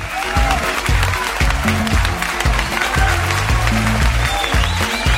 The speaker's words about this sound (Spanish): Bravo. ¿Dónde están los aplausos? Acá están.